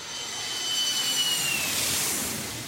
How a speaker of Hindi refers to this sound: तो साहब तो अपनी कुर्सी की पेटियां बांध लीजिए सीट को सीधी कर लीजिए क्योंकि अब ये प्लेन लैंड होने वाला है